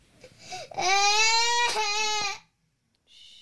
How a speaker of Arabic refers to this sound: البكاء مرة ثانية مثل ما قلنا ما ينفع تهدأ صراخ ايوه نوبة الحين, الحين. عدم استجابة